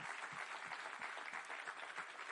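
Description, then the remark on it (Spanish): An audience claps hands together in praise of God, a dense, steady wash of applause with faint rhythmic low thumps running through it, sustained without pause and no voices standing out. “Con tus palmas, alábale.”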